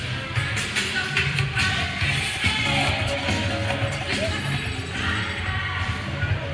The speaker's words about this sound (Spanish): Llegó, llegó la guagua que yo estaba esperando. Y esto no lo planifiqué yo. Escuchen esto, señores, escuchen esto.